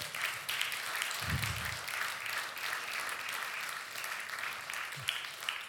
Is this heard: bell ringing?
no